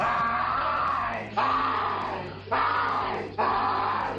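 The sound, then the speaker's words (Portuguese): A loud, sustained shouting yell repeated in three long bursts, each cutting off abruptly before the next starts, with a harsh, strained vocal quality and a low hum underneath. “Quando você colocou esse negócio aí de, de grito, eu vou colocar o grito do pai de família.”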